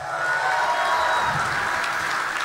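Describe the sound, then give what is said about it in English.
A crowd applauds and cheers steadily as real estate developer Don Peebles is brought out, a dense wash of clapping with whoops and shouts layered over it, loud and sustained throughout without any pause. “make some noise. Please, make noise.”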